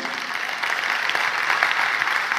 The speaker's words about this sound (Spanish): Así ah, va a aplaudir, ayúdame a aplaudir bonito y bien.